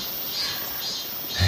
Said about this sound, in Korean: 강변의 수양버들 위에는 참매미가 귀청이 떨어질 정도로 울어대고 있었다. 매미의 울음소리를 듣자 한여름임이 실감나는 듯했다. 아, 매미 소리가 시끄럽지만 낭만적이네요.